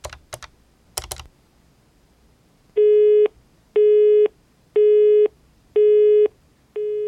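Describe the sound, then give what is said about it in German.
A few quick keyboard clicks, then an unanswered telephone call tone: steady, loud beeps of about half a second, repeating evenly once per second with short gaps of silence, no voices. “Telefon und Mail bleiben aber unbeantwortet.”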